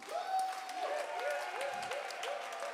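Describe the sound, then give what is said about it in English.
A crowd claps their hands to God in a steady rhythm while voices sing a repeating, gliding melody over the top, the clapping holding an even beat throughout. “Clap your hands to Him.”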